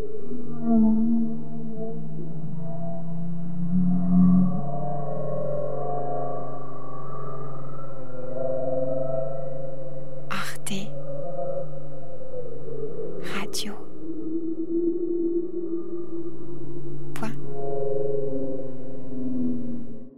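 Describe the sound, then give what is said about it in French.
Very low-frequency, drawn-out bowhead whale moans overlap continuously for about twenty seconds, their tones slowly rising and falling, with three brief sharp clicks breaking through partway. No one speaks. “des sons très basse fréquence. Les boréales, elles sont en voie de disparition.”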